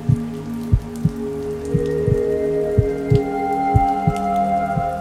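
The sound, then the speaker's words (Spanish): Steady heavy rain pours down, with a dense wash of drops and irregular low thuds of water striking a surface. No voices, just the constant downpour. “Emocionado y sorprendido, lloró bajo la lluvia. Sus lágrimas, fusionadas con las gotas del diluvio”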